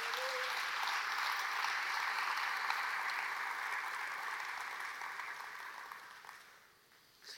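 Sustained applause for Jesus from a large crowd, a dense, steady wash of clapping that holds strong for several seconds before gradually thinning and fading out near the end.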